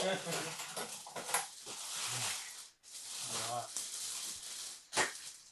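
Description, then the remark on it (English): Plastic packaging crinkles and crackles as it is pulled open, in dense continuous bursts with one brief pause, while a voice murmurs faintly underneath. “Apologies if this, this uh, rustling of plastic is not the greatest audio you've ever heard, but it is what it is at this point.”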